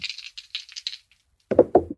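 Two dice rattle briefly with a bright, clicking shake, pause, then clatter down in a short burst of louder knocks and tumbling taps before stopping. No one speaks.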